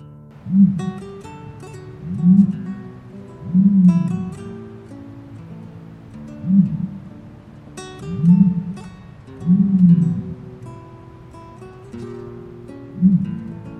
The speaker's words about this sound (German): Das war ein Strauß.